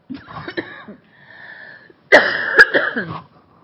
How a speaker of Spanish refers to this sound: Perdón, pero con una apariencia ahí medio de tos.